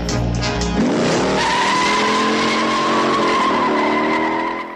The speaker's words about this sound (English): It's American. It's muscular. It's it's compact. It's determined. It's very small. It's yeah. So it's, it's compact. It's determined. It's it's ferocious, and uh, it's a bullet it's a fucking bullet of a car. It really is.